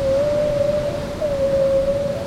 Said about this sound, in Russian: Ух ты! А, киты! Настоящие!